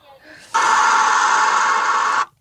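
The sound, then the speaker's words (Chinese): Loud, unbroken roar of traffic on the Fourth Ring Road, a dense hissing wash of noise that holds steady for nearly two seconds, then cuts off abruptly. “最后是四环的声音”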